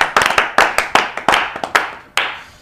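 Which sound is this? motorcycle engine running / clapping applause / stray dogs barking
clapping applause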